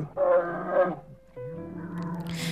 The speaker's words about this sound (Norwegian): Her er hvitebjørn kong Valomon.